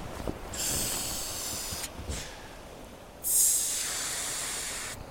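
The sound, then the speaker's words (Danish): A rubber dinghy being blown up by mouth at night among sand dunes: three long, breathy, hissing puffs of air, each lasting about a second or more, separated by short pauses. No voices. “Han begynder at puste den op med munden.”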